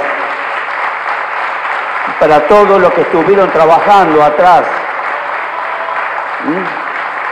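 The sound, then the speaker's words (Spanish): Steady, dense audience applause for three artists who made a mural, in Florencio Varela, a continuous hiss of many clapping hands, while a man speaks loudly over it through a microphone partway through. “vamos el aplauso para los tres artistas”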